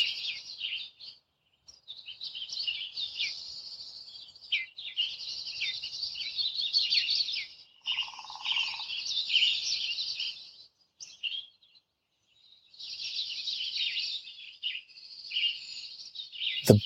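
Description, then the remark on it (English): Dense, high-pitched bird chirps and calls twitter close by in long bursts with short pauses, bright and busy, with no voices present; birds in the canopy near the top of a sequoia tree. “Birds sound so much closer too.”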